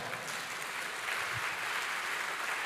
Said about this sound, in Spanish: Dele fuerte ese aplauso aplauso al Señor.